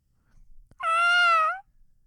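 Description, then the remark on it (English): A person's voice imitates the call of a big white seagull: one loud, high, nasal cry held for almost a second, then bending slightly downward at the end. It stands alone with near silence around it. “I want you to visualize a mm-hmm. seagull, big white one coming at you. Here he comes.”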